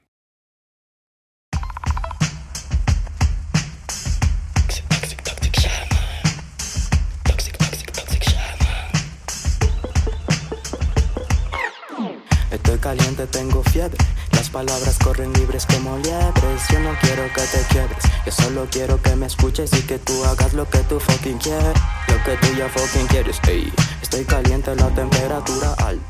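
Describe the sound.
A song with a driving beat and rapped, rhythmic vocals in Spanish, loud and full; the music drops out briefly near the middle before returning with layered melodic backing.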